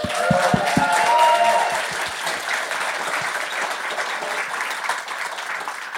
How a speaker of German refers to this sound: das ist dein Applaus.